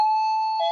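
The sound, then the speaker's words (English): A doorbell chime rings clearly with a sustained electronic tone that shifts to a second, lower note near the end, as someone comes to the door of a home. No one is talking. “That's the doorbell.”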